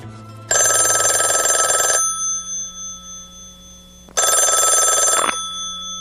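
A telephone bell in a 1974 American country song rings twice, loud, each ring a harsh rattling burst of over a second, separated by a pause of about two seconds with a faint steady tone underneath.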